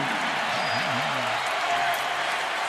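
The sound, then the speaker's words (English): A roaring arena crowd in Sacramento, on its feet, cheers loudly and steadily after Yogi Ferrell's three-pointer puts the Kings up 75-73 against the Jazz, a dense wash of voices and applause, with a faint voice rising and falling underneath in the first second. “Crowd on their feet.”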